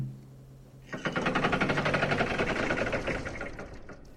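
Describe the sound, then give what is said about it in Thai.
In a video game, a low hum gives way to loud, grinding mechanical gears, like some machine's gears moving, a dense rapid ratcheting rattle that churns steadily for a few seconds before easing off slightly. “แล้วตอนนั้นเองเสียงเอียดอาร์ตที่เหมือนกับเฟืองเครื่องจักรบางอย่างกำลังขยับดังขึ้น”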